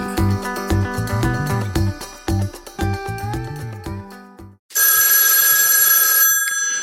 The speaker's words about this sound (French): Dring Dring Dring, c'est Jessica qui téléphone pas